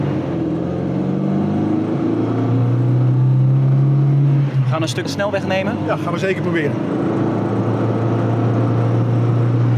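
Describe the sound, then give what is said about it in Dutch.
An old car engine knocks (pings) as it drives because today's fuel no longer suits it, a loud, steady low drone whose pitch climbs slightly before settling. Two people exchange a few words midway over the engine. “Je hoort hem een beetje pingelen.”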